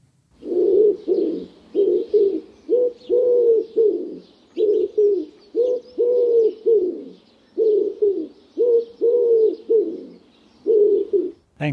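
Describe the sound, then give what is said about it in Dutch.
A wood pigeon coos steadily, its soft, hollow hoots repeating in short rhythmic phrases with brief pauses, and no talking over it, recorded in the Kroondomeinen (Crown Estate) near Niersen in Gelderland. “En daarom heb ik met Henk afgesproken in de kroondomeinen bij het Gelderse Niersen om te luisteren naar zijn verhaal achter het geluid van de houtduif.”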